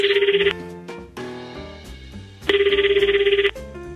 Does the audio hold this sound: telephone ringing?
yes